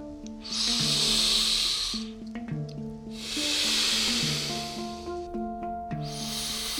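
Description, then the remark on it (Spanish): Slow, deep breaths drawn in and let out in long airy whooshes, about three cycles, over a soft background of gentle sustained musical notes. “Inspirar, exhalar, tomar, soltar, contracción, expansión”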